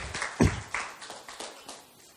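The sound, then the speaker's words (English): Congregation applause given as a round of applause for God: a crowd claps together in a dense, irregular patter, with a sharp louder burst near the start before the clapping carries on at a steady, moderate level. “Yeah, give God a round of applause.”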